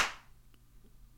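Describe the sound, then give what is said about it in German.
One sharp slapping smack right at the start, imitating a slap in the face given on a stage, followed by a quick decay into quiet with no talking. “So, so, so ein Schlag halt, so, so, so eine Ohrfeige in die Fresse, ja?”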